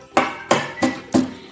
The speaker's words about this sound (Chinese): 说罢，小鸡墩墩带着几个警察上了楼，来到白猿老板的办公室。小鸡墩墩敲响了门房